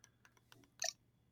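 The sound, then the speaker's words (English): Small plastic clicks from the crank of a tiny yellow Playdate handheld game console made by Panic tick irregularly and quietly, with one brighter, sharper burst near the end of the turning. No voices. “Uh, the Playdate from Panic, uh, which sounds like this”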